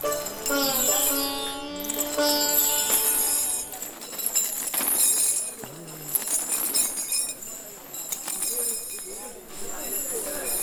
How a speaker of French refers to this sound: Alors le son qu'on vient d'entendre, c'est euh, le bruit d'une chaîne au bout d'un bout d'un éléphant, puisqu'on est dans une elephant camp, un endroit de sauvegarde des éléphants. Il passe à même pas un mètre de nous, c'est assez impressionnant